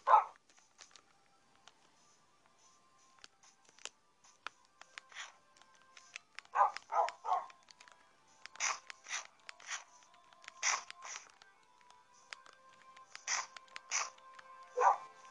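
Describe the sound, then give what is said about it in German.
Many tamed video game wolves bark in overlapping bursts, some louder, others fainter, with short yips and whimpers scattered through, sounding like a large pack. “Junge, das sind sau viele Wölfe.”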